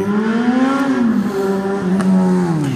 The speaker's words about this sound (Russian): О, весна началась. Весна началась. Выехали мотоциклисты.